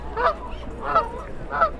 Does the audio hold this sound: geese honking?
yes